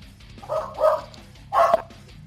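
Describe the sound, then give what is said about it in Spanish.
A dog barks three times in quick succession, short sharp woofs with a brief pause before the last one, moderately loud, with no one talking. “Pues ya, el perro ya está saliendo de control, entonces yo digo que ahí...”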